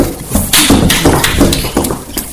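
A few people clapping in a loud, brisk burst of applause that runs steadily for a couple of seconds, sharp claps overlapping without any voices.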